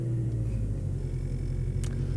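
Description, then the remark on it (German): A car's engine drones low and steady as the vehicle turns around at the end of a dead-end side road where the municipality ends, a continuous interior rumble with one faint brief tick near the end and no voices. “Hier also ist jetzt äh, die Gemeinde zu Ende und wir müssen wenden.”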